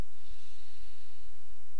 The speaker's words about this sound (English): Let's take a deep inhale through the nose